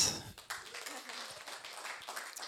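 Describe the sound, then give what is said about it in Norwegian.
An audience applauds a woman invited to speak, a steady, dense wash of many hands clapping at an even, moderate level for a couple of seconds with no voices standing out. “Gi henne en applaus.”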